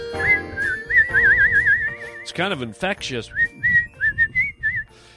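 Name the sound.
whistling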